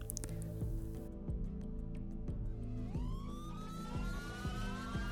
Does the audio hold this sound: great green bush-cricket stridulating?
no